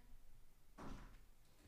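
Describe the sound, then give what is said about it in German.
A door is opened and closed, giving one soft, muffled thud with a brief rattle, with no talking. “jetzt nochmal zur Tür geschickt, damit sie die auf und zu macht.”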